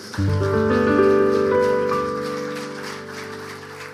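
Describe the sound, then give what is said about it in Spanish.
A crowd gives a loud round of applause to God under sustained keyboard chords that ring out throughout, the clapping a dense, crackling wash that stays fairly even before easing slightly toward the end. “¿Qué le parece si le damos un aplauso fuerte a Dios?”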